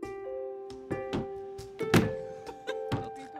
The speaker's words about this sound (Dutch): dat gewelddadige geluid was, uh, was de deur.